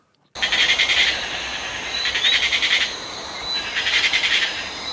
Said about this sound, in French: C'est beau, hein. c'est magnifique. C'est la nuit dans la forêt. La tac tac tac tac. là c'est pas la forêt de Fontainebleau, hein. c'est dans quelle forêt Non, c'est pas la forêt de Fontainebleau, c'est la forêt tropicale.